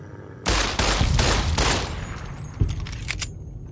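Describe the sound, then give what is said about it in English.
A loud burst of video game gunshots, fired with 10mm ammo at dogs charging the player, goes off in quick succession over a couple of seconds, followed by a few sharper, scattered shots and fading echoes, with no one talking. “It's not too hard to uh, squeeze off a couple shots and uh, take them down.”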